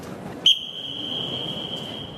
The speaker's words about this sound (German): Er pfeift und das Echo zeigt die besondere Akustik im letzten großen Raum vor dem Ausgang.